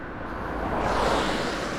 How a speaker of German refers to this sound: Wie du merkst, auf meinem neuen Weg ist ganz schön viel Verkehr. Ein Auto nach dem anderen fährt vorbei. Glücklicherweise biegt er jetzt gleich ab und dann wird es ruhiger.